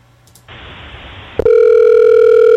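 A phone line opens with a burst of hissy static, then a click, followed by a steady, loud, unbroken dial tone humming at a mid pitch, as an outgoing call is dialed from the Super Estudio's phone. No one speaks.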